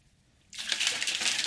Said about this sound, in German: Ah, Shaker halt immer zumachen übrigens, bevor man den schüttelt. Das ist schon mal so als Grundvoraussetzung.